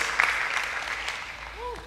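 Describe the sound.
An audience of the Osana Woodlands church community claps steadily as applause to the Lord, a dense wash of overlapping handclaps at an even, moderate loudness, with a brief rising voice tone near the end.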